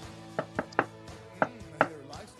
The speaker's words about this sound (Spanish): ¿Escucharon? Sí. Cinco golpecitos, güey, en la puerta de madera.